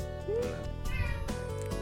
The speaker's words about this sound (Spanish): como dice Puchi, miau